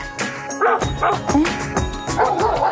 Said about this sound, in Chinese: 耶，奇怪，这些狗乱叫什么啊？难道是提前给四弟道贺？